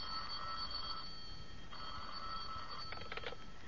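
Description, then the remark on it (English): An old telephone bell rings in an attorney's office in two long bursts separated by a short pause, then a brief rattling trill, fairly faint against a steady background hiss with no voices. “Oh, he's busy on the other phone, but I'll give him the message.”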